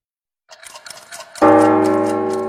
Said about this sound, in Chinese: 雪山上的大笨钟敲响了，这个钟声是提醒所有的圣诞老人们要赶紧到礼物工厂去领取小朋友们的圣诞礼物。